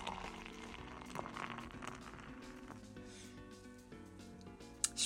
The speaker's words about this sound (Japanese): とりあえず開けますビール注いでる瞬間が一番楽しいですよ